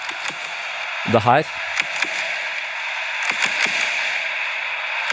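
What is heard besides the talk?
stadium crowd cheering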